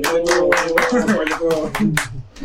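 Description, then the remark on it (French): A small group claps their hands in a steady, fairly quick rhythm, about nine distinct claps, while voices chatter and murmur underneath. “Du coup, euh, je pense qu'on peut applaudir ça déjà.”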